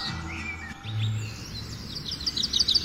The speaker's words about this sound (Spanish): Y los pajaritos. Sí, güey, siguen los pajaritos.